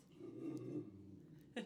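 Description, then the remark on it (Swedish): A puppy gives a low, rumbling growl lasting under a second, fairly quiet, then goes briefly silent before a short, sharp yip-like sound at the end. “Det är en hund med i podden idag.”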